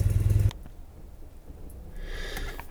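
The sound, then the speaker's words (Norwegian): A motorcycle engine rumbles loudly for a brief moment as a visitor arrives on it, then cuts out, leaving only a low, quiet background hum with faint hiss. “Av alle ting så var det jo en kompis av far min som kom på motorsykkelen her nå, så nå måtte jeg eh, snakke litt med han.”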